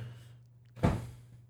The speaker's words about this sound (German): Jemand hat keinen Bock auf uns. Da hat jemand die Tür zugemacht.